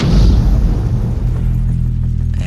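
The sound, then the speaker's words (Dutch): A loud, heavy explosion from mortar fire, a deep booming blast that rolls into a sustained low rumble as it fades over a couple of seconds. No voices are heard. “Maar inderdaad, eh, later hoorde opeens een flinke knal.”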